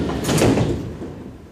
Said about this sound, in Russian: Осторожно, двери закрываются.